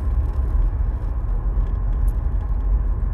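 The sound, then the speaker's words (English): A car engine rumbles steadily as the car comes out of a U-turn, a dense low drone that holds fairly even throughout, with no talking over it. “You get a car rooming now, don't you? Coming out of a U turn.”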